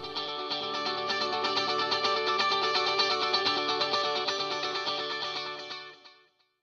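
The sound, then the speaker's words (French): A dense electric guitar passage through a stereo delay effect, with slightly different delay times on the left and right. Rhythmic repeating echoes stack and cascade across the stereo field for about six seconds before fading quickly. No voices are heard. “Alors que si on change les temps de délai entre droite et gauche, l'un légèrement plus court et l'autre légèrement plus long, on peut recréer ce rythme en cascade qui remplit l'espace stéréo.”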